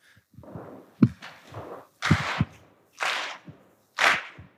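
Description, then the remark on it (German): An audience keeps a steady beat together as a rhythm exercise, tapping their feet and clapping hands or hitting tables, about one loud burst per second, mixing sharp hand claps with low thudding taps, with no one speaking. “Jetzt kommen Sie dazu, nämlich mit Klatschen oder auf den Tisch, ist mir egal.”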